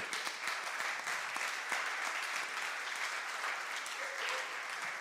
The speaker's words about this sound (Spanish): Entonces, empecemos, dar un aplauso a Jesús por eso.